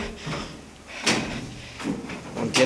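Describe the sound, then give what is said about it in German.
A heavy round airlock door opens automatically by oil pressure, moving with low rumbling and a couple of sharp mechanical clunks, with some background hum. “Eine Rundtür,”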